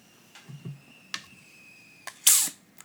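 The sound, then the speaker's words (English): Gas escaping from a SodaStream bottle: a few sharp clicks and pops, then one short, loud hissing burst near the end, with no voices. “People, sorry, those were the bubbles escaping the SodaStream bottle.”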